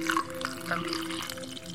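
A drink is poured steadily into a glass, a continuous trickling splash with a faint ringing tone, running without pause for a couple of seconds and no voices.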